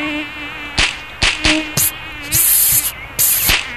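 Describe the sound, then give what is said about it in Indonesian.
A high-pitched mosquito whine drones steadily, cut by several sharp clicks and crackling bursts from an electric mosquito racket that come in quick succession. Nobody speaks. “Aduh, nyamuk. Oke, gue udah gak tahan ya.”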